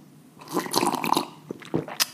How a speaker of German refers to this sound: Wenn ich ab und zu mal so eine kleine Pause mache, dann liegt es daran, dass ich an meinem Tee nuckel. Also äh, seid mir da nicht böse. Ich schlürfe jetzt mal extra ein bisschen repräsentativ.